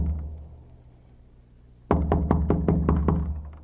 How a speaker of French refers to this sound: Un jour, une clocharde frappe à la porte.